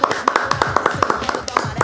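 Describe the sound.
Hand clapping: a quick, uneven run of about ten sharp, crisp claps over roughly two seconds, heard together with talking voices.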